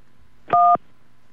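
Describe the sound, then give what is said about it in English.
A single touch-tone phone keypad beep as key 1 is pressed in an automated phone menu, a steady dual-tone note lasting about a quarter second, clear against a quiet background. “You have pressed 1.”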